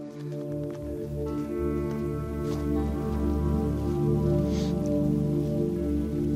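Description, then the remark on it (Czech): The Miletínský brook, below the village of Štěpánovice in South Bohemia, Czech Republic, babbles and gurgles steadily for the whole stretch, a continuous, fairly loud rush of flowing water with a low, full rumble underneath and no voices. “Takže jsme u eh, Miletínského potoka eh, pod obcí Štěpánovice a je to krásný příklad toho, jak naše úpravy vodních toků jdou vlastně proti myšlence zadržování vody v krajině.”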